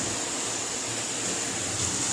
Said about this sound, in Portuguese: Ó, caralho, velho, tá chovendo pra caralho. Pera aí, deixa eu fechar a janela aqui.